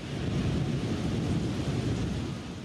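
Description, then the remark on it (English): Heavy rain from a thunderstorm over a city after dark on 9/10, recorded on video, roars steadily: a dense wash of noise with a deep rumbling undertone and gusty texture, continuous throughout with no voices. “This is the sound of that rain, the rain of 910, captured on video”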